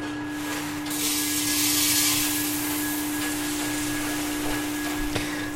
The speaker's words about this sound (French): Là, il va y avoir un petit silement. C'est ma cheminée. Parce qu'il est froid. Quand c'est chaud, ça fait pas ce bruit-là.